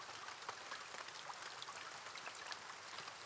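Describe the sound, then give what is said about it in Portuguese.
Steady pre-dawn rain falls, a dense, even hiss of countless drops with occasional sharper patters standing out, continuous throughout and free of any voices. “Há crianças que, indiferentes à chuva da madrugada, escorregam sem medo de pôr os pés no chão.”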